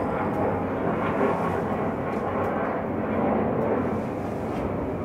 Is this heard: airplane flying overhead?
yes